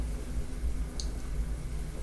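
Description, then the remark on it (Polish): Mushroom soup simmers in a pot on a gas stove turned down low, a low, steady bubbling rumble with one small pop rising above it. No one speaks. “Przez to bardziej słychać, jak się gotuje.”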